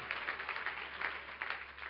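A seated church audience claps their hands unto the Lord after a prayer, a steady, dense patter of many overlapping claps filling the whole stretch, rising and dipping slightly in loudness without any voices.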